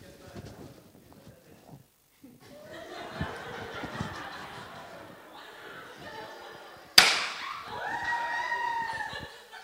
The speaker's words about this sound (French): Une simple feuille de papier a permis de casser cette feuille de euh, cette planche de bois.